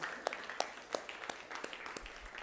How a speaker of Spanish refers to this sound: Amén, amén. Qué bueno es Dios. un aplauso de este Dios maravilloso.